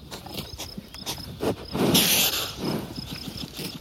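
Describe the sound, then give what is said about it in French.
A hedgehog, annoyed by cows grazing in a meadow in the Breton countryside near Cavan, Côtes d'Armor, France, in summer, huffs in short, breathy bursts mixed with low grunts, while a steady high insect chirr continues faintly in the background. “Surpris par les ruminants, le petit mammifère à piquant s'agace. Il souffle et pousse même quelques grognements.”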